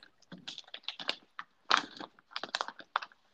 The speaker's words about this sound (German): ich höre gerade ein bisschen Knistern bei dir. Ja, entschuldige bitte, entschuldige. Das, Alles ist, gut. Äh, äh, das ist expected, äh, das ist auch gleich wieder vorbei. Ich dachte, du wirst da gerade von hinten in der Tüte erwürgt.